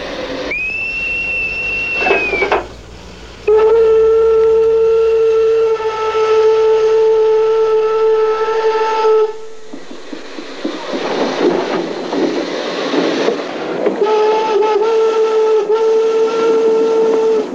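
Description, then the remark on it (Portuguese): A steam train whistle blows in long, loud, steady blasts, one high-pitched tone followed by a lower sustained chord, with a brief break and rumbling, hissing train noise between blasts. “Como a história é feita de histórias, corria o ano de 1987, precisamente há 130 anos, quando, com toda a pompa e circunstância, teve lugar na estação do Tua a inauguração da linha de comboio que iria até Mirandela e, 19 anos mais tarde, até Bragança.”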